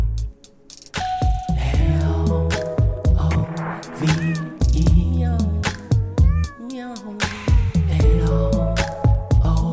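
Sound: stray cat meowing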